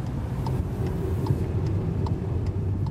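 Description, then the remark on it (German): A car drives steadily out of Malaga, heading east toward the province of Almeria, Spain, its engine and tire rumble loud and continuous, with a faint regular ticking, like a turn signal, clicking in the cabin. “Mit dem Auto geht es raus aus Malaga, zwei Stunden Richtung Osten in die Provinz Almeria.”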